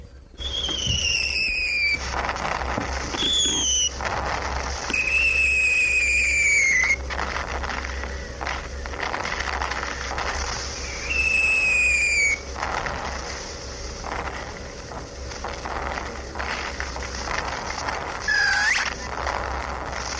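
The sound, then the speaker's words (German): Light shrapnel shells fire in a loud, steady barrage: several high, falling whistles, some overlapping, break over a constant rumbling roar with sharp bursts in between. No voices are heard. “leichte Schrapnells”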